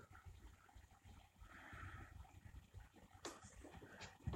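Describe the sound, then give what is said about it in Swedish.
Tap water pours steadily into a container for a few seconds, a soft trickling and splashing with a brief louder gush near the end. No one speaks. “Då hällde jag i lite det.”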